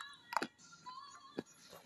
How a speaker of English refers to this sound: Sorry, I'm munching. I'm munching on one of my uh, anti-phosphorus pills.